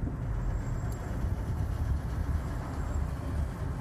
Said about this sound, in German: das müsst ihr euch mal anhören, dieser, dieser, dieser Motor von dem Audi